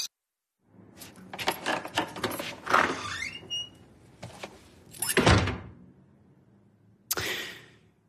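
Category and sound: sound effect, door closing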